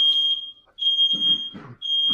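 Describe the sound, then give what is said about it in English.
A fire alarm blares in loud, piercing high-pitched beeps, three long tones separated by brief pauses, with some low muffled rumbling underneath. “did, you, did you just set off a fire alarm?”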